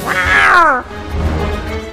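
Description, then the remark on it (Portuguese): A single loud, drawn-out cat meow, its pitch bending downward before it cuts off, followed by a low background rumble. “Um aplicativo promete traduzir o miado do seu gatinho.”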